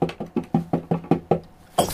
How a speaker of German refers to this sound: Weia! In meiner Truhe ist was. Es klopft da drin.